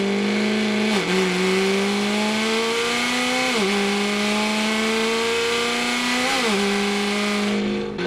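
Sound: car engine revving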